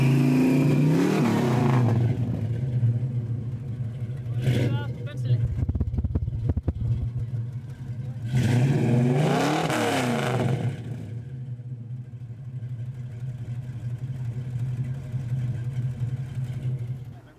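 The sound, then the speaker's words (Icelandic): A 1965 Mustang's engine idles with a deep, steady rumble, rising in two strong revs, one early and a longer one midway, before settling back to a throaty idle. “Hann er 1965 mótil þessi.”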